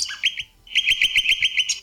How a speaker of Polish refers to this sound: I teraz tak, y, dzwonek y, regulowaną głośność ma za pomocą tak zwanego PRK.